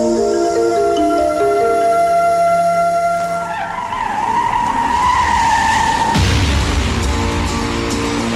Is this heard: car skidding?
yes